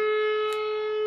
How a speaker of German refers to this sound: Das ist, die, Test, die testen jeden Samstag die Sirene. Da merkt man wenigstens, dass wir wirklich in Langenlois sind.